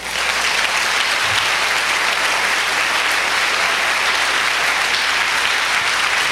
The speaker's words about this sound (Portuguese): Você pode aplaudir o Senhor por um minuto?